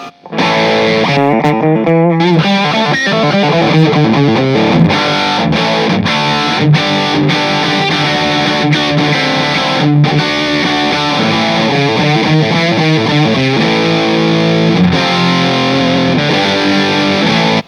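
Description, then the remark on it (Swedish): Heavily distorted metal guitar riffs play continuously and loud, with chugging rhythmic patterns and sustained crunchy chords, no voices present. “jag tror att man kan, om man verkligen vill, så kan man metallifiera soundet ännu mer om du kör lite riffigare”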